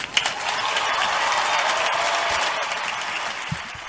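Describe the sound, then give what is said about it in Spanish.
Sustained applause from a large crowd at a gathering, thanking Jesus as Pope Francis asked, a dense wash of clapping that stays loud and steady throughout, with no voices heard above it. “agradezcámosle a Jesús con otro fuerte aplauso.”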